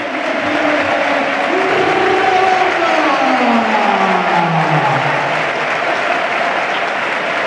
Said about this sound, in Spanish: Bueno, la afición también del Málaga ya empieza a irse porque ya este partido ganado. Y los que se quedan lo van a celebrar esas palmas ya a los jugadores, los aplausos.